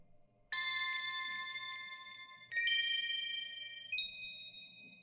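An anime studio logo sound effect: three bright, bell-like synthesized chimes struck one after another, each ringing out with shimmering overtones and stepping upward in pitch, with no talking.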